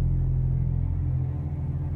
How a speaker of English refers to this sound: A storm is coming.